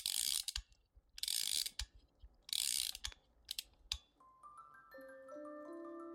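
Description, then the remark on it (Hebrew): A key winds a small spring in the back of a metal doll, in three bursts of bright ratcheting clicks, each followed by separate ticks, then a few soft tinkling music-box notes ring out at the end. “כאשר קהל האורחים הקיף את הבובה, ניגש בבג' אל גבה ומתח קפיץ קטן באמצעות מפתח.”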